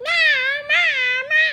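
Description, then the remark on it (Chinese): Three drawn-out meows in quick succession, high-pitched and loud, each rising then falling slightly, likely a child's voice imitating a cat. “猫咪，猫咪的叫声怎么叫？”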